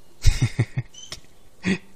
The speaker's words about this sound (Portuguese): E aí ela viu aquela cena estranha. Vamos ver mais uma vez. A chuva de peixe.